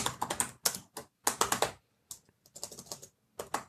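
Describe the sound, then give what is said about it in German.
Rapid clattering keystrokes on a computer keyboard, coming in irregular bursts with short pauses between them, fairly clear with no one talking. “Tippen kann ich richtig gut.”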